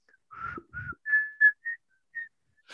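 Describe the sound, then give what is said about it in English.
A short whistled tune of about seven notes, some quick and some held, rising and falling in pitch, with no talking. “So they start whistling.”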